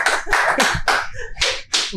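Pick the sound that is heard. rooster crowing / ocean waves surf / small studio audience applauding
small studio audience applauding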